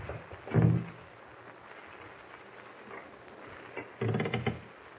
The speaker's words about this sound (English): Someone at the door. Shh. trying to open it.